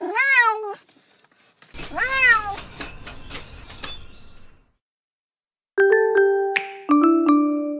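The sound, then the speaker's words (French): A cat meows twice, loud, with a short pause between the cries. It is the neighbour's cat, which has just jumped onto a cage on a balcony. A bright two-note doorbell chime follows after a moment of silence. “C'est à cause du chat du voisin. Il vient de sauter sur ma cage.”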